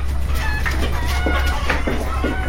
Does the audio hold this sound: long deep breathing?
no